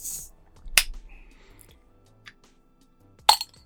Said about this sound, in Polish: ja w ramach nietypowych otwieraczy dziś użyję e, niekompletnego włącznika do światła, bo wiem, że piwo można otworzyć niemalże wszystkim.